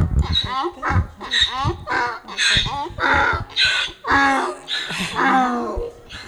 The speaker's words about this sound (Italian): Ecco, il raglio di dolore, ecco.